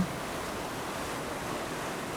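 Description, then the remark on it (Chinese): Ocean waves wash onto a beach in a steady, soft, hissing roar that holds an even level throughout, with no distinct breaks and no voices. “让这个海浪的声音包围着你，让你跟意林一样享受这个温暖的海滩之旅。”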